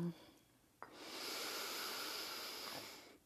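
A single long, steady ujjayi breath in and out through the nose with a soft, throaty hiss, fairly loud, sustained for a couple of seconds after a brief quiet start, with no talking.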